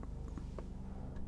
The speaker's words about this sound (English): do you hear that plane flying by? I actually live by, like, right across the street from a hospital, and the helicopters will often land on the roof of the, yeah, that's a helicopter of the hospital.